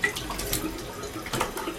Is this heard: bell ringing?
no